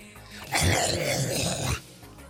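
A single long, heavy breath pushed right against the microphone, a loud breathy rush lasting about a second with faint quiet before and after.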